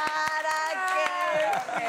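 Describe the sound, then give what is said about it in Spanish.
An audience claps for someone who has just sung, in scattered, uneven bursts, a handful of sharp claps rather than sustained applause, heard over a steady layer of overlapping voices. “Si le quieren aplaudir, aplauden.”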